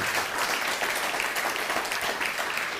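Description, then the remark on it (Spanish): A crowd applauds steadily for Israel, many hands clapping in a dense, continuous wash of sound at moderate volume throughout, with no voices standing out. “Y un fuerte abrazo y aplauso a Israel.”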